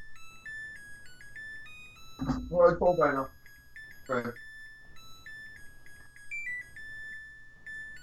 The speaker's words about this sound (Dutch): Wat is dit? Wat is dit? Dat is mijn wasmachine die zingt dat hij klaar is.